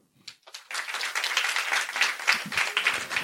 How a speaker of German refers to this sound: Das ist so ein richtiger Sonntagsapplaus.